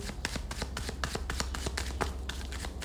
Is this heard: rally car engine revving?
no